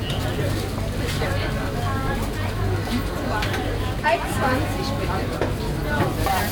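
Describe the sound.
A busy outdoor market, the Winterfeldtmarkt in Berlin, fills the air with steady crowd babble, overlapping voices and vendor calls rising above, over a low constant rumble and light clatter.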